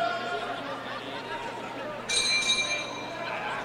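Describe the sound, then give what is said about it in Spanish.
A single bright ring of a boxing ring bell cuts in sharply partway through, ringing briefly over a steady murmur of crowd chatter, starting the second round of a 12-round flyweight fight between Christopher Rosales of Managua, Nicaragua, and Ángel Ayala. “Aquí está la campana, segundo episodio de esta pelea pactada a 12 rounds en la división de peso mosca.”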